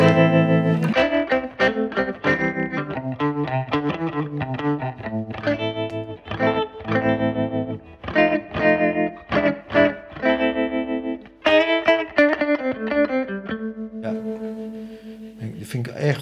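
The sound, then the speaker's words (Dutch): Electric guitar played through a tremolo effect pedal from the Swedish company Survey Industries, set to its blackface-style tremolo mode, chords and notes pulsing in a steady rhythmic throb, fairly loud, with no talking over it. “Ik heb een paar tremolo's, maar deze is toch wel...”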